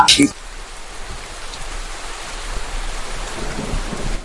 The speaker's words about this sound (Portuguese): Tava olhando pela janela pra ver por causa da chuva.